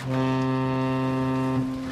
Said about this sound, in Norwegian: Skummasjarken tuter videre.